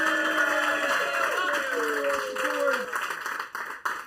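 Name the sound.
audience applauding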